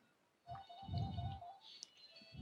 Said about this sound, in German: Ah, Telefon. Ja, ist okay, habe ich weggedrückt.